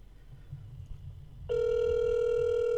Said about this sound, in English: Oh, come on. What is so important in your life that you can't pick up a call from your brother on a Saturday night?